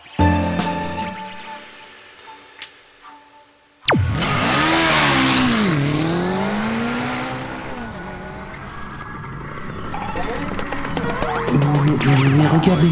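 A small single-cylinder Dax ST70 motorcycle engine (four-stroke, 72 cc, 5.6 hp at 8000 rpm, three-speed, automatic centrifugal clutch) starts abruptly and revs up and down, its pitch rising, dipping and climbing again, loud, with a rough buzzing tone.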